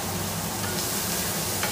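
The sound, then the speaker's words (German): Vegetables are all added to a hot pan while cooking and hiss and crackle, a steady dense sizzle with faint stirring sounds throughout and no one speaking. “Jo, ähm, jetzt das Gemüse drin. Komm, alles rein.”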